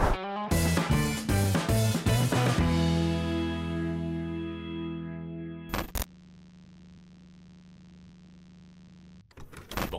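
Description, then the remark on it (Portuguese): The Clube do Valor channel's short electronic intro jingle: rapid punchy hits over bright synth tones that ring out and fade, a sharp burst midway, then a low sustained hum before a final swell. No talking. “E enquanto tá rodando a vinheta, comenta aqui abaixo se você está comprando ações atualmente, sim ou não, beleza?”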